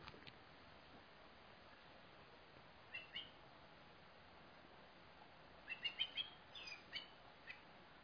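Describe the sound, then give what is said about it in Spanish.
A blackbird sings faintly, one brief phrase early on, then a longer run of bright, warbling notes, over a quiet, steady outdoor hiss with no voices. “Está el mirlo eh, cantando y bendiciéndote.”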